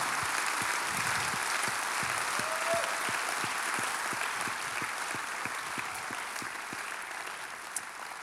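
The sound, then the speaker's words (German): Sustained audience applause for the women and men who raise children, a dense steady wash of many hands clapping with a few sharper individual claps standing out, holding at an even level throughout. “Und lass uns doch einen Applaus geben diesen Frauen und Männern, die unsere Kinder ziehen.”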